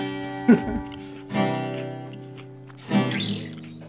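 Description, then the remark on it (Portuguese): Someone chewing peanuts right at the microphone, with a few crunchy bursts of munching spaced out over a few seconds against a steady, faint humming tone. “Realmente, um cara mastigando o microfone não é coisa.”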